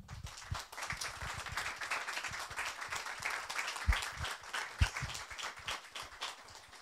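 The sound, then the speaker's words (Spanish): Steady audience applause at an evening talk as the speaker, an electrical engineer and practical philosophy instructor, is introduced: a dense crackling wash of claps from many hands at moderate loudness lasting several seconds, with a couple of sharper individual claps standing out; no one speaks. “Así que les pido un fuerte aplauso”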